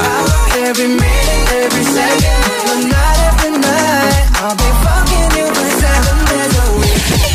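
A loud, upbeat pop song plays with a steady, punchy bass-heavy beat and bright layered melodic lines running continuously throughout, with no one talking over it.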